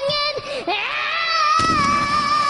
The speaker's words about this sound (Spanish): Eso suena como una película de terror. Escucha como grita, suena que la están matando. Da un poco para atrás ahí, suena como que la, como que la están matando.